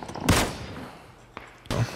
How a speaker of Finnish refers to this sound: Mistä te? Joo, mun Mistä teitä ammuta?